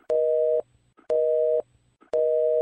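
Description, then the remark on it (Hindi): A phone busy tone as a call to Krish fails to connect: three steady electronic beeps, each about half a second long with equal gaps, clear and alone with no voices. “मैं भी कब से ट्राई कर रहा हूँ उसको कॉल करना बट उसका कॉल ही नहीं लग रहा है”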